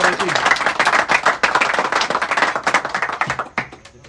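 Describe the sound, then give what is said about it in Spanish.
A crowd applauds with dense, steady clapping that holds strong for about three and a half seconds, then tapers off into a few scattered claps, with voices mixed in. “Así que un gran aplauso a Y Un gran aplauso”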